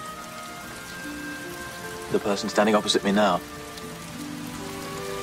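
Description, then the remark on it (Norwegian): Steady rain falls throughout, a continuous soft hiss and patter, while a man speaks briefly in the middle over it. “Is it still raining?”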